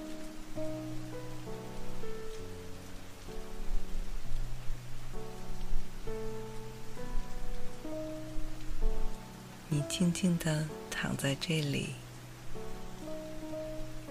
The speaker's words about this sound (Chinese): 听着四周绵密的雨声